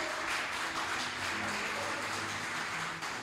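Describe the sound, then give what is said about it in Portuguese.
An audience at a church service applauds loudly and steadily for Jesus, a dense wash of clapping from many hands that holds at an even level for a few seconds with faint voices mixed in beneath. “Olha aplaudir bem forte a Jesus.”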